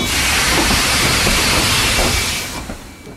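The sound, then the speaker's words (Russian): A loud, steady rush of air and rail noise from a metro train, like pneumatic brakes releasing as it starts moving, fading away over the last second. No voices. “Метро. Пока вы стоите в пробках, мы начинаем движение.”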